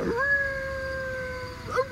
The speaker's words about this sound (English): In triumph, Mr. Honeycutt unleashed an enthusiastic howl.